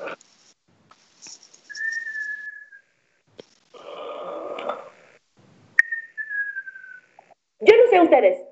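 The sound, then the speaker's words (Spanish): A voice imitates Santa snoring: two cycles of a raspy, rumbling inhale followed by a long, high, slightly falling whistle on the exhale, in a slow cartoonish rhythm with no talking. “Pero Santa ronca igual que todos los abuelitos de los niños que siempre visito.”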